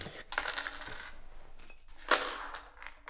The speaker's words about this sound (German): eine Handvoll Tabletten aus ihrer Tasche und lässt sie auf den Tisch prasseln.